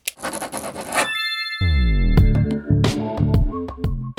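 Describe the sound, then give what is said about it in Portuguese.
A second of quick, scratchy pen scribbling on paper, followed by a bright ringing ding and a run of punchy, low musical hits. No one speaks. “Pega a caneta”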